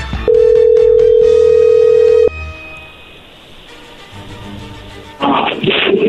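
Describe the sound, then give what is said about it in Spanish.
A phone call being dialed rings out with one long, steady, mid-pitched ringing tone lasting about two seconds, followed by quiet line hiss and then a louder burst of crackly noise. “Ándale, Lobo, ahí se está marcando, no hagan ruido.”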